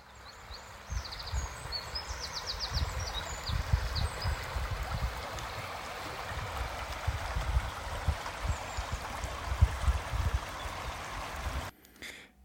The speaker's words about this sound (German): Ja, das, was du gerade gehört hast, das waren die entspannten Klänge eines Baches, eines plätschernden Baches in meiner Heimat Gebelsberg.